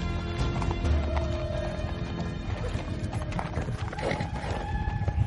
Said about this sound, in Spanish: De día cabalgan siguiendo un río rodeado de montañas bandeadas en tonos ocre. Paran y observan a unos jinetes que se aproximan.